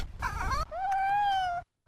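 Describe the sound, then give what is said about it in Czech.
A cat meows twice, a short rising call followed by a longer, drawn-out plaintive meow, because it cannot get inside. Faint low background rumble and no talking. “Tady nám něco mňouká. No, naše Lilina. Nemůže dovnitř.”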